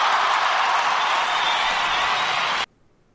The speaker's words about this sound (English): Uh, hold on, hold on. Yeah, we need a round of applause.